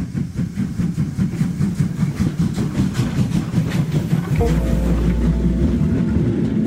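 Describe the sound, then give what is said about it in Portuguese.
A train arrives at the station of Floresta dos Leões, on the Recife-Limoeiro railway line, rumbling steadily with a rhythmic low clatter, then a sustained low drone and tonal whine take over as it slows, loud, with no voices. “Naqueles tempos, passar por lá quando chegava um trem era uma atração”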